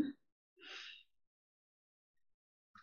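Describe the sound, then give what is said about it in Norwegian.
A single sharp inhale drawn in through the nose while counting to three during a guided breathing exercise, fairly clear, lasting about half a second, with short fragments of a voice just before and after. “Og så lukker du øynene, og så puster vi inn mens vi teller til tre. Inn gjennom nesa.”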